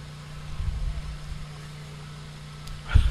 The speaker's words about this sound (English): There's an air conditioner around back of it. And there's an in-room air conditioner over in the tent. And you can see the screen down there is being shaken by the exhaust from it.